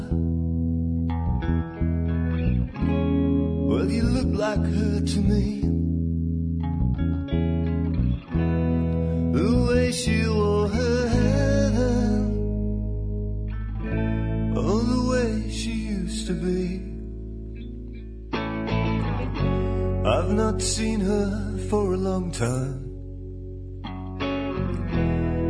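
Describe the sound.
A melodic rock song plays at full volume, with a male vocalist singing over steady guitars, bass and drums, the arrangement building and swelling through the passage.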